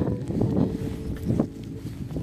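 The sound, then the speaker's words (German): Wind buffets the microphone in a steady low rumble, swelling in a couple of gusty bursts over about two seconds, fairly loud with no voices. “Es ist gerade etwas windig, also es tut mir schon mal im Voraus leid für die, die das hören.”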